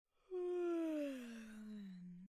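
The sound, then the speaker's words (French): A single long, drawn-out yawn from a tired girl, clear, its voiced tone sliding slowly downward for about two seconds before stopping, with no talking. “Un long bâillement échappe à Thaïs.”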